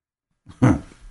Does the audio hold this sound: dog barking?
yes